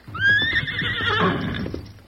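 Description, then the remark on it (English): A black horse called Ebony whinnies loudly, one long wavering neigh lasting about two seconds, with faint hoof clatter underneath and no talking. “That's what I call this horse.”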